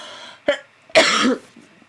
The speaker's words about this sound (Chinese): 等一下，咳嗽。